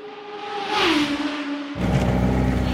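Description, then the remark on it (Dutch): An orange Fiat 124 Spider with a black top revs its engine, its pitch rising then dropping, followed by a sudden deeper, louder rumble as the car pulls away with a broad whooshing roar during a test drive in Sicily. No one speaks. “Nou, daar gaan we in de Fiat 124 Spider al twee weken op, mee rondgereden op eh, Sicilië.”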